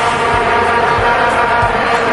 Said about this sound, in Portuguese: África do Sul 2010, uma das copas mais carismáticas de todos os tempos, com características marcantes como a vuvuzela, instrumento de sopro da torcida que entrou nas transmissões e nas mentes sem pedir licença.